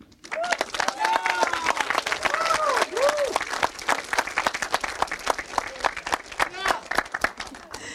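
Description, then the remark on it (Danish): A live audience at the Empire Bio cinema bursts into sustained, loud applause for itself. Dense clapping fills the whole stretch, with scattered cheers and whoops rising above it before it tapers slightly near the end. “Giv os lige jer selv en hånd.”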